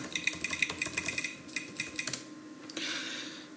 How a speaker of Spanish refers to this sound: Este teclado, desde luego, es bastante más cómodo que el, de, que el del otro Mac.